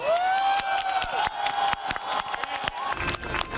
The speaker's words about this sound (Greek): Την ίδια ώρα έξω από το Κοινοβούλιο, πλήθο κόσμου που είχε συγκεντρωθεί ξεσπάσε χειροκροτήμα χειροκροτήματα στο άκουσμα του αποτελέσματος.